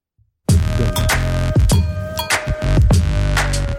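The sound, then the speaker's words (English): A short, loud bumper jingle from a MotoGP motorbike show bursts in after a moment of silence, full of throbbing, engine-like revving and sharp rhythmic hits over a sustained tone, with no talking. “That's how the young motorbike people do it.”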